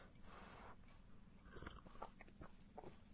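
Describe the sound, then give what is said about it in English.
Quiet slurping from a mug of coffee with peppermint creamer, a few short wet sips and mouth noises over roughly three seconds, with no one talking. “I have peppermint creamer in the coffee I'm about to slurp on air.”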